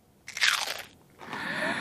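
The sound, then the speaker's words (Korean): Two crisp, bright crunches of someone biting into a homemade chocolate-coated potato chip, made by coating chips in melted chocolate and chilling them in the fridge. The first crunch is sharp and loud, the second a longer brittle crackle, with no talking. “소리까지 맛있습니다.”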